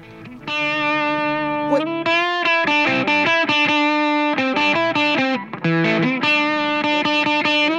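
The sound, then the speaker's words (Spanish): A loud rock song with heavily distorted electric guitars playing sustained chords and riffs, steady and dense throughout, with no voices heard. “nada, nada, es una canción de rock”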